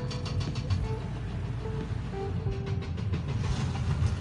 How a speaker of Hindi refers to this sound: ठक ठक की आवाज़ आ रही है झालावाड़ रोड पे फ्लाईओवर का काम चल रहा है ज़ोर शोर से